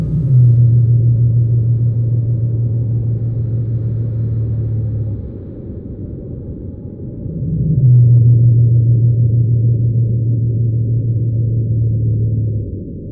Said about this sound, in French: Et dans mes enregistrements de Crozet, c'est la deuxième espèce que j'ai enregistrée aussi, la baleine bleue euh, pygmée de Madagascar.